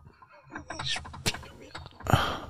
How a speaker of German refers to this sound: Der Stuhl macht Geräusche. Jetzt aber schon wieder.